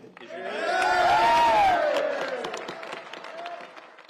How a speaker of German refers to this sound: Es ist schon lustig, Rike, wie, sie, wie die Republikaner klatschen, als sei nichts passiert oder jedenfalls, als habe es keine Vorgeschichte gegeben und wie Johnson sagt, ähm, das Haus sei vereint.